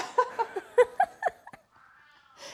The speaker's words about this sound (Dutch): Dus voor iedereen die even een miauwtje hoort. Ja. Het is de poes.